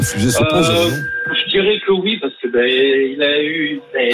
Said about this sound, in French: Il y a un énorme Larsen, donc soit tu coupes ton haut-parleur, soit il y a un problème ailleurs